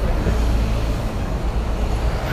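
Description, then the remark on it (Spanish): Trucks rumble past on a road, a loud, continuous low roar of heavy engines and tire noise that stays steady throughout, with no voices. “Güey, háganse para acá porque pinches camiones.”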